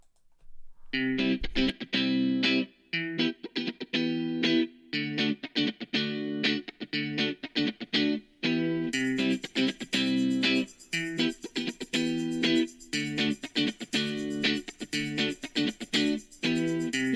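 A pop song intro plays loud and close, with punchy rhythmic chords in steady bursts; bright cymbals join about halfway through, filling out the sound. No singing or talking.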